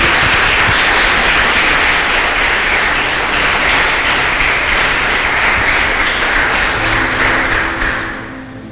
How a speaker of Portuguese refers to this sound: Tem alguém aí? Aplaude o Senhor, meu irmão, por isso.